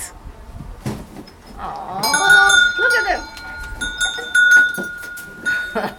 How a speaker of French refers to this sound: Il y a deux vaches et deux petits veaux.